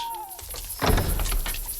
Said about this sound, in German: Als die drei Fragezeichen vor dem Haus standen, öffnete sich plötzlich die Tür und zwei Personen kamen heraus.